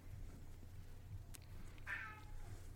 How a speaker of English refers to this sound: Oh God, the cat's down here and it's gonna start meowing. Oh, here we go. Oh, I can hear it.